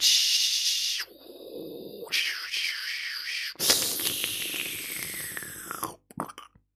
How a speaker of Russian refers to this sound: А, звонили по модему, это э, US Robotics 56K с вот этим звуком